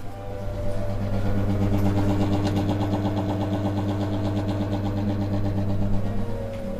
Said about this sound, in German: Dieses Geräusch ist eine Uhr